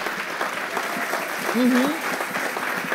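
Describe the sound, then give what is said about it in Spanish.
An audience applauds steadily, a dense crackle of many hands clapping at once, with a brief voice calling out over the clapping midway through. “Si alguien va a aplaudir aquí, que lo haga bien ahora.”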